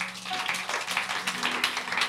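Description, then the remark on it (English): An audience claps for Jesus together in a dense, steady wash of overlapping hand claps, with no single beat standing out. The clapping holds at a fairly even loudness throughout, with no talking. “clap for jesus”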